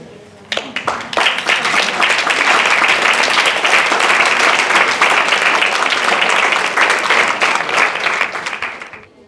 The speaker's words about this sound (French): Les gens qui sont autour sont morts, mais il y en a encore qui sont là, alors ceux qui sont restés sur les couvertures méritent une bonne main d'applaudissement.